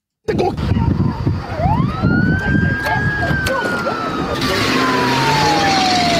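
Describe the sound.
A police siren wails once, sweeping up to a high pitch and then sliding slowly back down, loud over a rumbling, noisy background with some indistinct voices.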